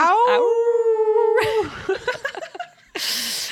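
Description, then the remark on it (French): A person mimics a wolf howl with one loud, sustained rising note lasting over a second, followed by choppy laughter-like vocal bursts and a short breathy rush of noise. “Moi, ça me donne juste envie de faire le loup. Aou!”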